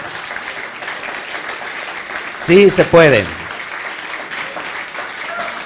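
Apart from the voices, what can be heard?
audience applauding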